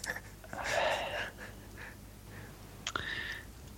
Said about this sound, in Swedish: bara sitter och flåsar.